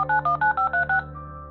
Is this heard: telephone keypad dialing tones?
yes